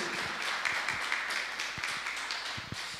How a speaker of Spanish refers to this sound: Les damos un fuerte aplauso a toda esa gente que está conectada del otro lado. Esto es para ustedes.